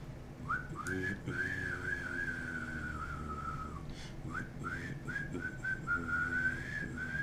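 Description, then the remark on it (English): Someone whistles a long, wavering tone in imitation of a descending spaceship, pausing briefly midway and then resuming, over a steady low rumble in the background. “Yeah, it's but it sounds like a spaceship coming down.”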